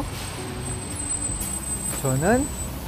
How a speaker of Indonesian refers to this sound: rame kan ini ya ini saya lagi nunggu bus nih pasti rame banget ini